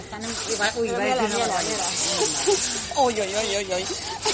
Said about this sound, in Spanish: está, embalando muy mal, ¿eh? Están, embalando aquí en la casa.